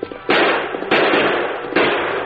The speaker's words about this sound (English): Carl's aim was affected by his panic and by the movements of his horse, and his bullets went wild.